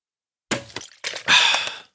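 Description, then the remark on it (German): A bottle cap twisting open: a few crackly plastic clicks and snaps, a short pause, another crinkly burst, then a steady hiss for about half a second. Fairly quiet, with no talking. “Ich mache jetzt gerade den Deckel von meiner Flasche auf, die ich zu Hause habe”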